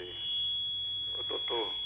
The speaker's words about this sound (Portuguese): Você podia baixar um pouquinho o seu rádio? Tá dando microfonia, a gente não consegue lhe ouvir direito.